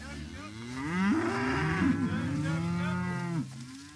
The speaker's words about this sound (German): … wird hier gerade von seinen Rindern übertönt. Die Tiere wissen, dass gleich etwas passieren wird.